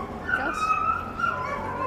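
An excited dog whines and yips in high, wavering tones, fairly loud, with a continuous pitched whimper running through the whole short moment.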